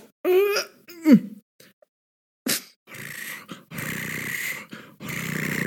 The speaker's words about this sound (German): Und ich, ich, sag, ich möchte ah, sagen, bevor ich es vergesse, ich mag das, wenn sie die Katze ins Mikrofon halten.